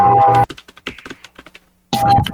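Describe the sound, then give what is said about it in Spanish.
A quick flurry of keyboard keystrokes while searching on Wikipedia, a dozen or so clicks in an irregular rhythm, set between two louder, fuller bursts of sound at the start and end. “Déjalo busco en Wikipedia.”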